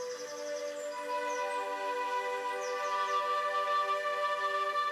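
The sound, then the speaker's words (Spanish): Faint birds chirp and trill high above a steady, sustained musical drone, with a few short rising calls scattered through the background and no one speaking. “escuchas el cantar de los pájaros y el sonido que hace el agua.”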